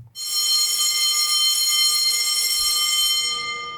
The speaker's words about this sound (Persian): اوه اوه بچه زنگ خورد و دیگه فرصت برای حیات رفتن هم نداریم کلاستون الان شروع میشه